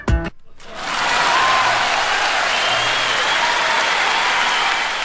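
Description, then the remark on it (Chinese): Audience applause at a startup showcase programme, welcoming an investor, swells up after a brief opening sound and holds as a dense, steady wash of clapping, loud and sustained until the end with no talking over it. “我们接下来掌声要有请得出博匠资本的投资人郭汉成，掌声有请”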